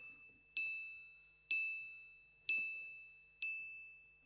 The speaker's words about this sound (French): C'est cinq coups de carillon quand même.